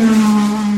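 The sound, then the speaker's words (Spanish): A voice imitates a race car engine, like a Formula 1 car heard at night on the Ruta Viva road, with a loud, steady buzzing drone held for under a second, its pitch barely changing. “Unos motores que vos dices, espérate. no, es. Si no es un Fórmula 1, es algo bien cercano.”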